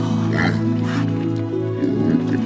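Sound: pigs oinking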